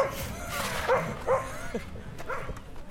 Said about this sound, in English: Before the barking dog attacks.